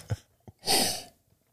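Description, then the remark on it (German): Someone takes a sip of morning water: two soft, low gulping sounds, then a loud, breathy exhale of relief lasting about half a second. No one speaks. “Ein Schluck aus dem morgendlichen Wasser, herrlich.”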